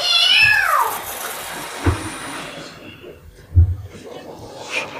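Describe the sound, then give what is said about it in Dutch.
A single drawn-out cat meow rises and falls at the start, clear. Quieter background noise and a couple of soft low thumps follow. “Wij zorgen wel voor de kat.”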